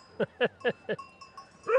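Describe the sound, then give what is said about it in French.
A flock of sheep tended by a shepherd just below, with four quick bleats in a row and another bleat after a pause, a clear cowbell-like ringing tone running through the gaps. “Ah, il y a vos moutons qui sont juste en dessous Oui.”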